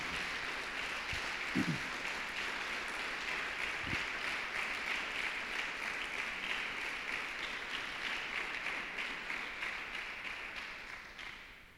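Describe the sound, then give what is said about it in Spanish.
A church audience of believers applauds the Lord in a dense, steady wash of clapping that stays fairly loud for about twelve seconds, tapering slightly at the very end, with no talking over it. “Todos los que tienen fe le dan un aplauso al Señor.”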